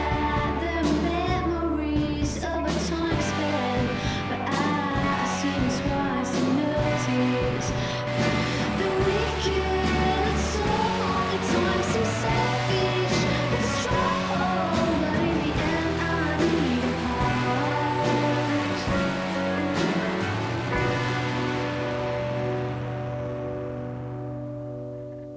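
A full band song plays steadily with bass, sustained chords and bright percussion, then gradually fades out over the last few seconds until it drops away.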